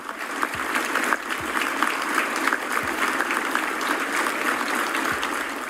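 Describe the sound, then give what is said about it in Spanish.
Sustained applause from a large crowd, a dense steady patter of many hands clapping at once with a few low thumps underneath, no voices standing out, at the 44th anniversary celebration of the founding of Nicaragua's army, applauding the army chief's words, with his battalion joining in. “los primeros en aplaudir las palabras del jefe del ejército en la celebración del 44 aniversario de fundación de la institución castrense eran precisamente la pareja dictatorial, mientras el militar hacía que su batallón se uniera con palmas”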